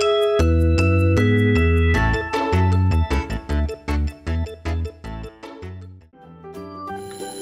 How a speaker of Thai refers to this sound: เอ๊ะ เสียงออดดังแล้ว อุ้ย ต้องไปเข้าเรียนแล้วล่ะค่ะ